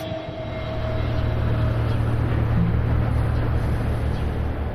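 A boat engine drones steadily, a deep continuous rumble with a faint whine riding above it, holding a constant level as the vessel maneuvers toward the quay at the port of Praia da Vitória, watched by sailors on board.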